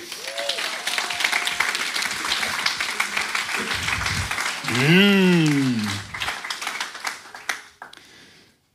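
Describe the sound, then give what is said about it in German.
A morning audience breaks into steady applause for three people painted in colours, dense overlapping clapping that lasts about eight seconds, with a short rising vocal hum partway through before the clapping thins out and fades. “Haut doch mal einen Applaus raus für die drei.”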